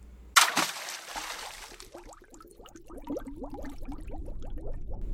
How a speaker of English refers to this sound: The Leadsman throws a lead line into the water. It's basically just a weighted metal cylinder attached to a 24 foot long rope. There's 13 little cloth flags woven into the line, marking each quarter fathom.